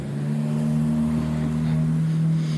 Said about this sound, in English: Okay, well, get a new car if it's going to sound like that.